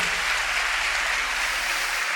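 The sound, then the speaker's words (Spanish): Steady applause from an audience, a dense wash of many hands clapping at once, sustained at an even level throughout with no voices standing out. “Me gustaría de que tú no aplaudieras sino que pusiera todo tu cerebro, tu mente a pensarlo.”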